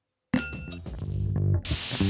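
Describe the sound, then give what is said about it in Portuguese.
Glasses clink together in a toast in a quick flurry of bright, ringing taps that shimmer and fade, followed by a short burst of hissy noise. No one speaks. “A gente vê vocês na próxima temporada. Um, um brinde.”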